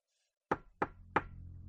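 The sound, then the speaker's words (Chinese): Three soft knocks on a heavy door, evenly spaced and quick, each a dull thud, followed by a faint low rumble lingering after the last knock. No one speaks. “直到目前为止，这是最微弱也是最清晰的敲门声。”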